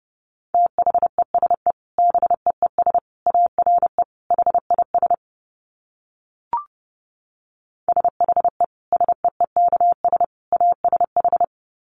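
Rapid Morse code at about 30 words per minute: a steady mid-pitched tone keyed into quick dits and dahs, two runs of characters split by a silent pause with one sharp click.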